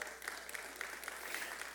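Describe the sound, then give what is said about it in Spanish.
An audience applauds the Lord steadily, a dense wash of many hands clapping at an even level for a couple of seconds, with no distinct voices rising above it. “¿Le puedo dar un aplauso al Señor por ello?”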